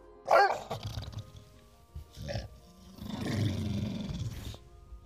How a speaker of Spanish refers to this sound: Al verle, el perro pensó que era un animal salvaje y comenzó a ladrar furiosamente.